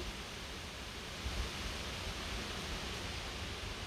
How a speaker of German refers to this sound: Oh, hört ihr den Sturm?